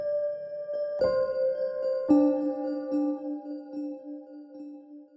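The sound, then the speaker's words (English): A slow bell lead melody opening a track, with a soft piano layered underneath it, three ringing notes struck about a second apart, the last one sustaining and gently fading. No voices. “I decided to layer it up with a soft piano sound.”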